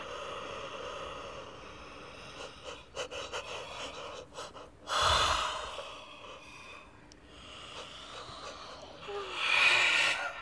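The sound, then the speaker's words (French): Yawning, with two long, breathy yawns rising and fading, one midway and a louder one near the end, amid softer breaths and quiet snuffles. “Ils baillent tellement qu'ils vont bientôt roupiller.”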